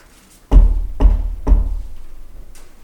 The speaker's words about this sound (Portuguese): Após lavar o rosto e se encarar no espelho, a jovem foi surpreendida por batidas na porta.